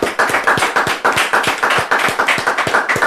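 A round of applause from a group, with dense, overlapping claps forming a steady, fairly loud patter that continues for about three seconds without any voices.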